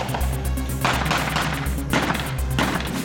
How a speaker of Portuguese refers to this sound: morteiros, canhões. Aqui, munição e estratégia são fundamentais para frear o avanço das tropas inimigas.